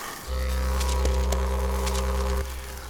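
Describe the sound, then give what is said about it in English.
A loud didgeridoo drone booms steadily for about two seconds, its deep buzzing tone pulsing with brief brighter accents before cutting off. No one speaks. “I thought I'd bring my didgeridoo.”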